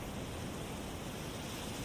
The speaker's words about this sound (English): The night is calm and peaceful. Just the sound of the waves